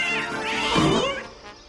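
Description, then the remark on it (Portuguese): A single drawn-out cat meow, loud, rising then falling in a wavering, slightly whiny tone, heard on its own without any talking. “You will learn the secret of Moonscar Island as our heroes battle the forces of darkness and worst of all, cats.”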